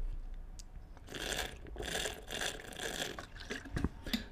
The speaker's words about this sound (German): Naja, ich trinke mal kurz einen Schluck.